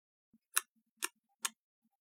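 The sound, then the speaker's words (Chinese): Three sharp, bright tongue clicks coming from a side passage of a cave, spaced about half a second apart, each a crisp snap with a faint low thump before or after, alone against silence. “从一个岔道口又传来了一阵声响，听着像是有什么人正在砸舌。”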